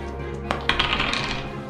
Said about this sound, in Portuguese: na verdade eu vou rolar um dado para ver quem que abriu a porta.